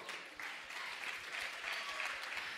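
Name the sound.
audience applauding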